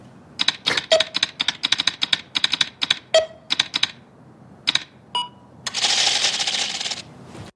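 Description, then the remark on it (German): A countdown timer at an Apple computer resets after an alarm with loud mechanical clattering: rapid bursts of sharp clicks in uneven runs, then a brief pause and a sustained rattling flutter as the digits settle. No voices. “Also wenn sich dieser Timer zurücksetzt, das, das Klackern klingt genauso, wie wenn das Monster so klackert.”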